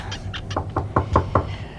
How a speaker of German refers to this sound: Klopf an